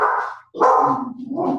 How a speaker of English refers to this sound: That's my dog in the background.